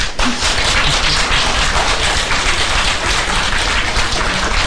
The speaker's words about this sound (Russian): Здесь должны быть аплодисменты.